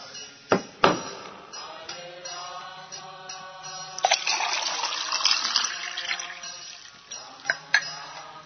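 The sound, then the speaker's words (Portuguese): Water pours into a cup for a few seconds, a steady splashing fill, framed by a few sharp clinks of the cup being handled before and after, as a speaker gets more water to drink. “Já tomei água, já peguei mais água.”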